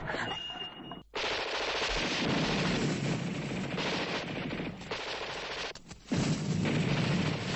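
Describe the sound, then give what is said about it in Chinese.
Dense, continuous gunfire rattles in rapid bursts, with heavy shelling booms mixed in, as a truck reaches Repulse Bay through the shellfire; the barrage breaks briefly around the one-second and six-second marks, then resumes loudly. No voices. “卡车在榴弹网里到了浅水湾。”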